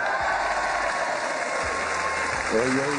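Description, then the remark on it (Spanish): Steady applause from a crowd welcoming actor Juan Pablo Barragán, a dense continuous patter of many hands clapping at full volume, with a voice briefly rising over it near the end. “Mejor recibamos con un fuerte aplauso al señor Juan Pablo Barragán.”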